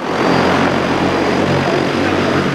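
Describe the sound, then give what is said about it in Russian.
A steady, loud whirring drone of multiple rotors in flight, a continuous buzzing hum with propeller-like tones that holds constant throughout, with no voices: pilotless passenger air taxi drones made by the Chinese company EHang, each weighing 650 kg and carrying 2 passengers, flying at 50 m height over 1.8 km in central Seoul. “это первое испытание пассажирских дронов такси в условиях густонаселенного города”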